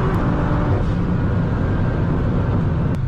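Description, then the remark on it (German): A big-turbo Toyota Supra engine roars loudly and steadily, a dense, rumbling drone with a heavy low end and no talking over it. “REAKTION auf Toyota Supra HUGE TURBO”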